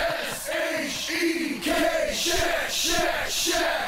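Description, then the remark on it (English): A small group of people cheering and shouting together, with repeated rising whoops and yells in bursts, fairly loud and steady over a few seconds, no clear speech. “Doesn't sound like too big a crowd.”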